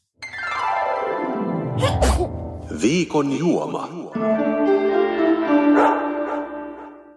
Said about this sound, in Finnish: Kuuntele tätä jingleä.